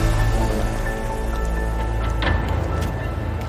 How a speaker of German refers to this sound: Schluck Wasser noch.